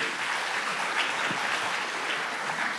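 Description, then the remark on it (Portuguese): Steady audience applause at a church for the 'detetives da palavra', a group who take notes during the sermon: a dense wash of many hands clapping at an even loudness throughout, with no voices standing out above it. “Ei, galera, uma salva de palmas ali para os detetives da palavra.”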